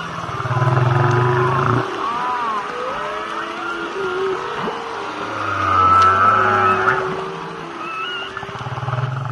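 Whale calls recorded underwater in the sea through a microphone sealed inside a condom and connected to an amplifier: overlapping moans, rising whistles and low droning tones blend into a continuous, echoing chorus with no talking.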